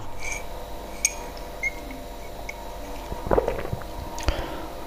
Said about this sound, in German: Ich meine, das ist wirklich sehr aufwendig gemacht mit der Punktschriftmaschine. Ja, also der Sound ist gut aufgenommen. Ich weiß nicht, wie die das aufgenommen haben, aber auf jeden Fall, das klingt wirklich sehr echt